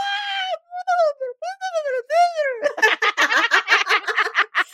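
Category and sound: vocal imitation, voice imitating a dolphin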